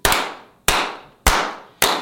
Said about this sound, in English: More flowers to give. Can we slow clap yeah, Please.